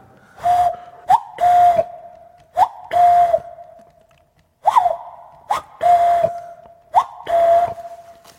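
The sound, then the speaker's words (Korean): A person wearing a mask imitates a cuckoo call with breathy, whistled two-note hoots: a short rising note followed by a longer steady one, repeated about five times with brief pauses. No one talks over it. “저는 어 뻐꾸기 소리를 낼 수 있습니다. 들려드릴게요.”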